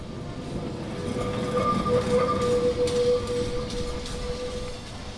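Lisbon tram wheels squealing on curved rails in the city: a sustained, wavering metallic whine rising over a steady rumble of rolling rail traffic, with no voices; it happens on curves as one wheel tries to keep pace with the other.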